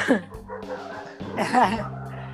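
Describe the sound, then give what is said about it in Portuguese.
Several dogs bark and yip in two short bursts, their high, wavering cries overlapping against a steady low hum. “Nossa, os cachorros aqui, eles chegam uma hora assim, parece que tá na hora de conversar.”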